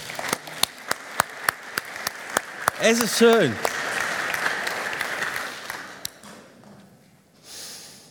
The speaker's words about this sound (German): Komm, wir geben ihnen einen Applaus, okay?